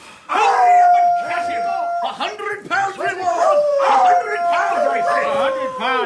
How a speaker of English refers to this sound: He crawled, slept, stole, fought, pushed ahead while dogs barked and hunters called. Catch him!